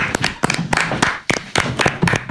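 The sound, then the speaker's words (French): Sustained applause at 8 pm from many people clapping all around outside, a dense crackle of overlapping hand claps with sharper individual claps standing out, fairly loud and continuous throughout. “Non, non, je, c'est les applaudissements, il est 20h, c'est pour ça, il y a du bruit tout autour de moi, je ne vous entends plus.”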